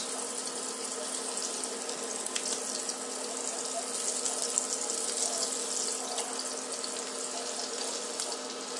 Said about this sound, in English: And this sizzle is reminiscent of that lightning or thunder rather. Mini thunders. Cute little thunders.